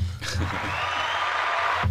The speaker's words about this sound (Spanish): Este merece un aplauso.